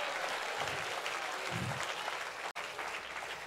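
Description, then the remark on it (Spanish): An audience applauds steadily, dense sustained clapping filling the whole stretch at an even, fairly loud level, with a momentary cut about two-thirds through before the clapping resumes. “Antes de dar aplausos al que le queda al lado, reconozca al Dios de él.”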